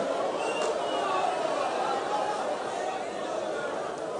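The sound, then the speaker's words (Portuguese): An audience cries out loudly in prayer to God, many voices overlapping in a dense, continuous wash of sound that stays steady throughout, with no single voice standing out. “Começa a clamar. Há uma fonte aqui para o que clamar. Eu quero ouvir a voz de clamor aqui.”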